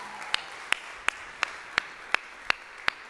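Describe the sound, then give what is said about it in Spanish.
Steady rhythmic clapping from an audience, about eight sharp claps in an even beat, heard over a soft continuous wash of background noise, with no talking. “Saludos a todos, buenos días, un aplauso porque Dios está en este lugar.”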